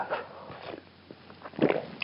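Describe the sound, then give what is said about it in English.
A quiet sip of coffee: a soft slurp at the start, a faint pause, then a louder wet gulp near the end, with no talking. “Now, I'm just going to take a sip of coffee.”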